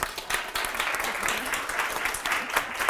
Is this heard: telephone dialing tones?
no